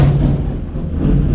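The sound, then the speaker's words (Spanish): A deep, continuous rumble of thunder rolls on steadily without a break, heavy in the low end and fairly loud, as if a long peal is still going. No one speaks over it. “Eso, esos son truenos.”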